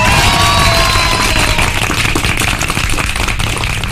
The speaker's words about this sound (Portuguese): Então ele merece uma salva de palmas.